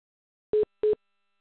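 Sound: phone beeping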